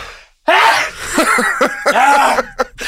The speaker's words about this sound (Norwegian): Du har ganske bra nys da. Jeg digger å virkelig makse ut et nys, jeg.